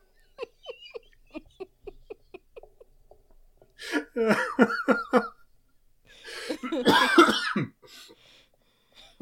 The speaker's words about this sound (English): I almost coughed to death.